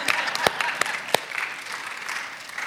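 A small group at a prayer gathering applauds a person's demonstration, a dense patter of many overlapping claps with a few sharper, louder hand strikes standing out, steady, lasting a few seconds.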